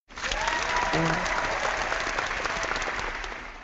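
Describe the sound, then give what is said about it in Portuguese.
A sustained burst of applause from a group, many hands clapping densely at steady loudness for a few seconds, with faint voices briefly audible underneath before it tapers slightly at the end. “Pedir vou pedir uma salva de palmas mais uma vez aqui”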